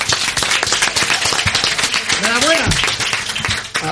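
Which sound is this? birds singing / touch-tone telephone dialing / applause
applause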